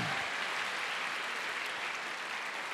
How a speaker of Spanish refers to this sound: Yo creo que se merece un fuerte aplauso al que vive. Amén.